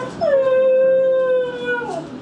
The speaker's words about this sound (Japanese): おおどうしたと一郎ワンちゃん来たのかお散歩にうんどうしたワンちゃん来たのかうん